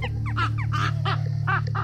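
A crow caws in a rapid series of harsh, raspy calls, six or so in quick succession, fairly loud, over a steady low background hum.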